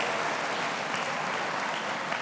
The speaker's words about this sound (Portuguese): Só os graciosos aqui aplaudam ao Senhor.